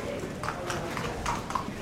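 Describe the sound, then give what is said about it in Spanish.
Horse hooves clip-clop in a steady, unhurried rhythm, five or six sharp steps, as a horse enters the patio de cuadrillas of a bullring during a bullfight, over a low, continuous background rumble with faint voices. “Ahí entra el caballo en el patio de cuadrilla.”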